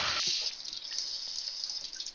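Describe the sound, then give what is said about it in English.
Water pours steadily into a baking dish in a bright, continuous splashing rush that lasts the whole couple of seconds, fairly loud, with no one speaking. “We get our water in here.”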